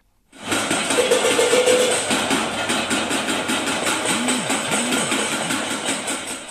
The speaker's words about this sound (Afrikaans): En geluid wat jy daar hoor is potte wat geslaan word met verskeie voorwerpe om geraas te maak.